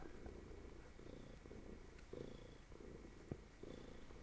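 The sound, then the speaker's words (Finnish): A cat purrs steadily, a low rumbling drone pulsing in a continuous rhythm with no voices over it. “Se on kyllä yksi maailman rauhoittavimpia ääniä.”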